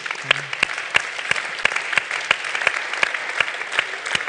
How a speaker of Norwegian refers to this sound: Klapp for dere sjøl.